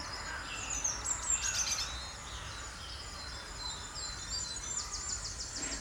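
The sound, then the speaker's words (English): A dense, continuous din of crows cawing at dawn as they wake, from many directions, mixed with herons, wrens and cranes, high chirps and insect-like buzzing, moderately loud and steady, with a few harsher calls standing out; no one speaks. “the crows are really waking up now.”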